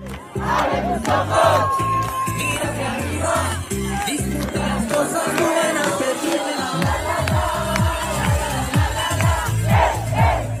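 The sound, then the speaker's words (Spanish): A large crowd of young people sings loudly together outdoors, with rhythmic low thumps suggesting jumping in time, and the chant sustained steadily throughout. “Gente joven cantando, es una canción de …, pero las hay peores, se intuye que saltan, parece que están al aire libre.”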